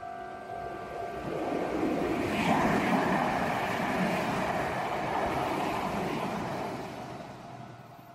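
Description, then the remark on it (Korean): An out-of-service electric commuter train rolls past at a slow pace before dawn in a cold residential area, slowing down to pass as quietly as possible. Its low rumble and rushing noise swell to a peak midway and then fade as it moves off, with a faint steady hum underneath. “그렇게 생각하며 눈앞을 지나가는 전철의 창문을 멍하니 바라보고 있었다.”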